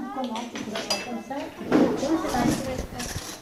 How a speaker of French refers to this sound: Moi, je mets les cuillères et, aussi les fourchettes parce que là il manque des cuillères